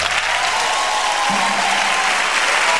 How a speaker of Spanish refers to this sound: Queremos agradecer a la gente amiga. Te que confía en nosotros, un aplauso